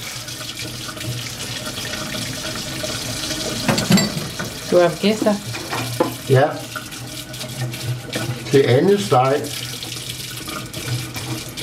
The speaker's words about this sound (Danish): Det er så dejligt afslappende at vaske op.